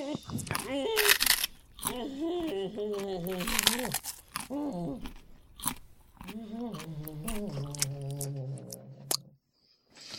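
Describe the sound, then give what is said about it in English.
Crunchy chewing of a wasabi Kit Kat bar, with sharp bites and crackles in bursts, mixed with wordless voiced murmurs and hums throughout. “and now, me softly chewing a wasabi Kit Kat.”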